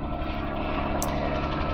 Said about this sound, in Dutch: Ik zit lekker in Frankrijk met een kopje koffie op een berg. En eh, er komt nu ineens een helikopter voorbij. Misschien hoor je het wel.